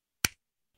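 A single sharp, crisp hand clap with a quick decay and nothing else around it.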